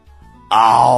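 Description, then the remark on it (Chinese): A person's voice imitates the roar of the tiger in the Water Margin story of Wu Song fighting the tiger: a single loud, sustained, growling cry that shakes the valley, bursting in suddenly after a moment of near silence and holding strong to the end. “嗷！震动山谷，同时两只前爪在地上一按，眼睛盯着武松。”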